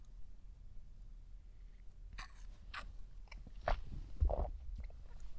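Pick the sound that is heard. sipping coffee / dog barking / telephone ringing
sipping coffee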